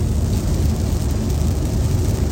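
Steady rain drums against a window pane, a constant dense patter with a heavy low rumble underneath, loud, with no voices.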